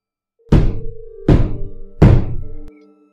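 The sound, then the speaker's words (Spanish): Three very heavy knocks land on the front entrance door of a home at an even, unhurried pace, each a loud, booming thud with a short resonant ring, alone with no voices. “Justo cuando terminó de decir eso se escucharon tres golpes muy fuertes en la puerta de la entrada.”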